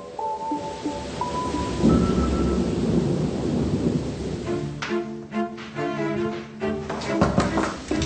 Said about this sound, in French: Et pour couronner le tout, un orage s'est déclenché cette nuit-là, pile au-dessus du moulin.